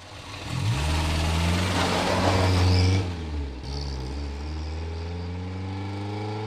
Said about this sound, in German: Sie kriegen neue Arbeiter, erwiderte der Ermittler durch das geöffnete Fenster. Das Auto war schon in Bewegung.